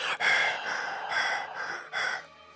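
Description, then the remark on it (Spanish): A person imitates a masked slasher's heavy breathing: several slow, raspy, hollow breaths in and out, close and fairly loud, with no talking. “se oye como de película de los ochentas, güey, de esas del asesino que, va vas como bajo la máscara, ¿no?”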